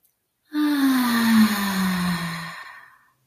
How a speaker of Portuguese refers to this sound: E aí faz uma respiração mais profunda, puxa o ar pelo nariz e solta pela boca.